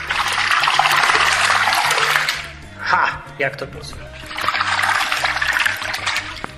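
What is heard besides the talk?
water splashing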